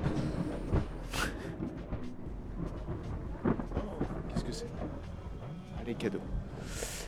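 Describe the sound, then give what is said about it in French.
Deep, rolling thunder from an approaching storm rumbles continuously through the whole stretch, heavy, with brief louder cracks and a hiss like rain, while muffled voices murmur faintly underneath. “Euh, parce que j'ai l'impression qu'il y a l'orage qui arrive.”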